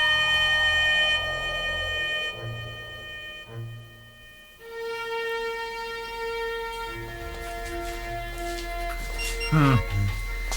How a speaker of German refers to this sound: komischer Apparat. Und dieses Summen. Ich komme mir vor wie beim Zahnarzt.